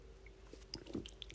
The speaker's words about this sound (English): Excuse me, my a little sip of water here.